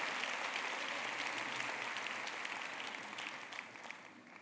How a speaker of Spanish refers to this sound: ¿Por qué le damos un fuerte aplauso a Dios por la vida de todas las suegras? Buenas suegras.